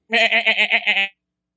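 A goat bleats once in a loud, wavering cry with a rapid pulsing tremble, lasting about a second, clear with nothing else around it.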